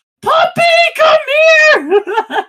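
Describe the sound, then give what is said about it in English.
A delivery driver lets out a loud, high-pitched excited shriek in a few bursts on pulling up to a house to hype up a dog, the voice rising and wavering over about two seconds. “In this like high pitched shrieking voice, like I'm dying.”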